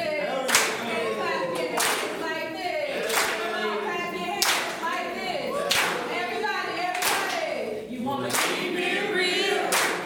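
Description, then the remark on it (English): A live audience in Atlanta, Georgia claps together in a steady, unified beat, about one clap every second, loud, with voices and cheering murmuring underneath. “Clap with me. Clap your hands.”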